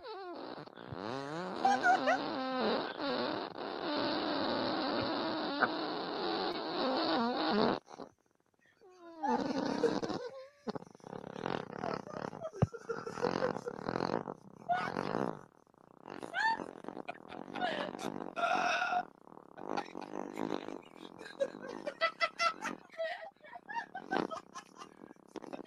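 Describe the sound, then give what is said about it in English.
A long, loud, rasping fart holds steady for about eight seconds, then breaks off. After a brief pause, choppier sputtering bursts of sound follow. “It's a 33 second fart.”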